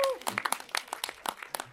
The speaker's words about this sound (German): Ich glaube, es ist auch ein Applaus wert.